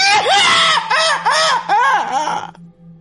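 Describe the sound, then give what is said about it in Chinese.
A voice imitates a young wife screaming in fright after seeing an old woman's face behind a glass window: a loud, high-pitched cry broken into four quick rising-and-falling wails, lasting a couple of seconds before cutting off abruptly. “这才懂得叫唤，连滚带爬的把这灯就给打开了。”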